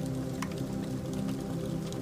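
Soft, steady crackling of a fire with scattered sharp pops over a low, continuous rumble, fairly quiet, with no voices.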